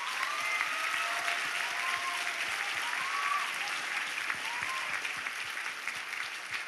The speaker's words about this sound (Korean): 하지만 여러분 정말 남가주 사랑의 교회와 우리 김승우 목사님 위해서 크게 박수로 감사 한번 해주셨으면 좋겠습니다.